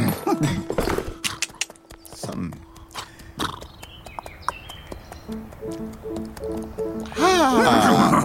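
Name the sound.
horse hooves clip-clopping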